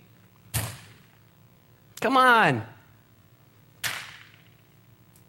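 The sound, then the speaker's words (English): Two sharp punch impacts hit a man's face a few seconds apart, each a hard smack with a quick decay, and a man's voice speaks briefly between them. “And they're pummeling his face.”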